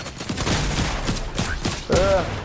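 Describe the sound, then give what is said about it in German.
A rapid series of loud video game sniper rifle gunshots, several sharp cracks in quick succession over a busy background of game noise, ending with a brief ringing tone. “Da schau, ich zeig dir mal die Sniper.”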